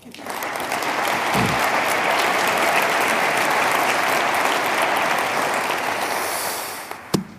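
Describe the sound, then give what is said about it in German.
A steady wave of audience applause for Malte Faber, many hands clapping in a dense, even wash that holds for several seconds before tapering off, ending with a sharp thump. “Ich komme zum nächsten, nachdem Malte Faber seinen Applaus bekommen hat.”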